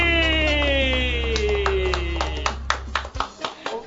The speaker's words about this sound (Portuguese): Eu quero receber com vocês uma salva de palmas para ele